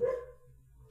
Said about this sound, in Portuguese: Oh, desculpa pelo cachorro novamente, não tem nada que eu posso fazer.